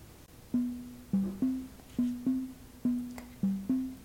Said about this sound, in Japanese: はいというわけでリンを聞いていただきました